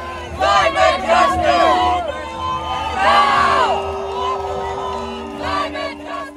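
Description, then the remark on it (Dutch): A large Extinction Rebellion protest crowd on the A12 in the Netherlands, on a Saturday in late January, with hundreds more along the roadside cheering them on, shouts in a loud, continuous roar, many overlapping voices rising into high whoops and calls that swell in bursts and then ease off. “En langs de kant staan nog eens honderden mensen ze aan te moedigen.”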